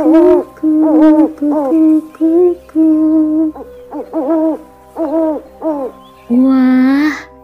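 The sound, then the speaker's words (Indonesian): A human voice imitates an owl's call, giving a series of about ten loud hooting calls in a bouncing rhythm, ending with one longer, rising hoot. “ada yang tahu tidak teman-teman itu burung apa ya yang bunyinya seperti itu iya betul sekali itu adalah burung hantu”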